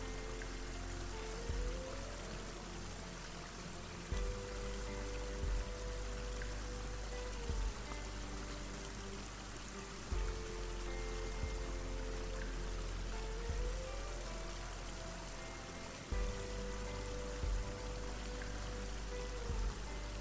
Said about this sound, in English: the canyon ends at a series of waterfalls cascading gently into several deep natural pools.